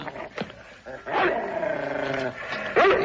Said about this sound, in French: Débarrassez-vous de ce chien. C'est interdit par le règlement. Vous n'avez qu'à l'emmener avec vous.